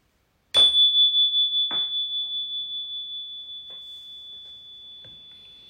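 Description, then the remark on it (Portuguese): A meditation bell is struck once to close a formal meditation practice period, ringing out with a bright, high tone that wavers gently as it slowly fades over several seconds; a few faint soft clicks follow, with no talking. “E daqui a pouco eu vou convidar o sino a soar para que a gente possa finalizar esse período formal de prática.”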